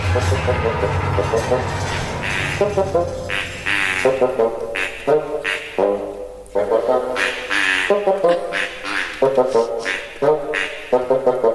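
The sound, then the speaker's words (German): A nasal, reedy oboe plays the lively title theme melody in short, bouncy notes and quick repeated phrases, loud and bright, over a low sustained accompaniment at the start. “Schön. Schöne Melodie. Ist eine Oboe, ne?”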